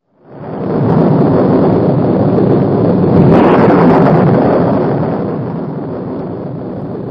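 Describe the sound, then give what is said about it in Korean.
Heavy rain pours down steadily over a village in a storm with thunder and lightning, while a deep roll of thunder swells and rumbles through the middle, then eases back into the dense hiss of the downpour. No one speaks. “그것은 마치 천둥과 번개를 동반한 장대비에도 끄덕없는 돌다리의 위험을 보여주려는 듯 했습니다.”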